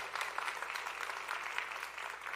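An audience in a church applauds the Lord: a steady, dense wash of many hands clapping at once, fairly loud and even in level throughout the short stretch, with no voices standing out.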